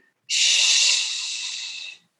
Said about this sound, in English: So we're breathing in, belly breath in the nose, bringing that same breath up into the sternum and breathing out with sound out the mouth. Shh, trying to get a slight movement in the rib cage.